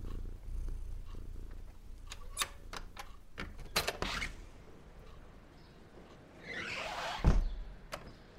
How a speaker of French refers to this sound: L'air frais chatouille son visage tandis qu'elle ouvre la porte d'entrée.